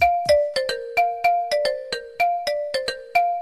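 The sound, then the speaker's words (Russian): The Viber app's incoming call ringtone: a bright electronic melody of quick plucked, bell-like notes repeating in a bouncy rhythm, with no voices. “звук вызова в Вайбере.”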